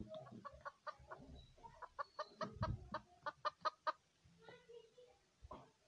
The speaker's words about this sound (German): ein Hahn, ich meine ein Huhn.